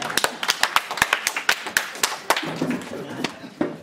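A small audience claps, a quick run of sharp, distinct hand claps that stay steady for several seconds, close and fairly loud, with faint murmuring voices creeping in toward the end.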